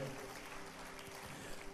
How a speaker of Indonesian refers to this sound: Kita berikan tepuk tangan bagi nama Tuhan. Haleluya.